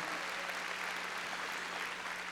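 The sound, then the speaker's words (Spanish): During a sermon, an audience claps loudly for the Lord in a dense, steady burst of applause, many hands blending into a loud, continuous patter that holds evenly for a couple of seconds. “A ver, palmas fuertes a nuestro Señor.”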